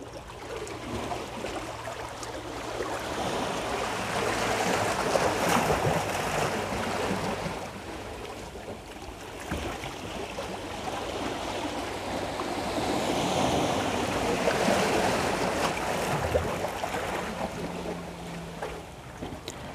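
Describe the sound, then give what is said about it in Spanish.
Steady roar of surf washing onto a sandy beach with rocks between the sand and the water, in sunshine, swelling into two broad surges and easing back between them, with a breezy rush of wind over the microphone and no voices. “Abajo en la playa, mientras tanto, una pareja perdida en la zona Juegan las rocas entre la arena y el agua, a la vez que el sol ayuda a calentar el ambiente.”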